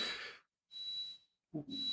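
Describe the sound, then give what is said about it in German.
A kitchen stove in an apartment beeps with steady, high-pitched electronic tones, one long beep followed by another after a short pause, mixed with soft breathy rushes of noise and no talking. “Es piept hier irgendwas in der Wohnung.”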